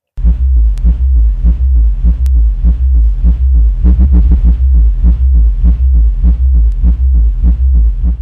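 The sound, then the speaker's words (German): A sample of the sub-frequencies used at a music event for deaf and hard-of-hearing people: a deep, loud bass throb pulses steadily at a quick, regular rhythm, heavy low rumble with faint higher ticks riding on each beat, continuous with no voices. “Wir haben auch ein Hörbeispiel von diesen Subfrequenzen, da hören wir mal ganz kurz rein.”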